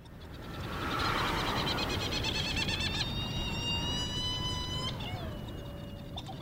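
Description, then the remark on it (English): Herald (Trindade) gadfly petrels flying all around on Round Island near Mauritius in the Indian Ocean call: a rapid pulsing chatter, then long, drawn-out wavering whistles that slide downward, all over a steady rush of wind or surf. “And these are flying all around us are these amazing gadfly petrels called uh, herald petrel or Trindade petrels.”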